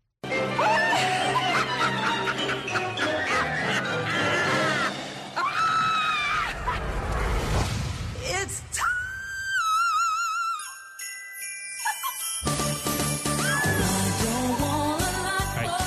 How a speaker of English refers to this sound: And then all of a sudden, there's a magical moment, and the season changes, and everything becomes Christmas. And you start to hear her sing.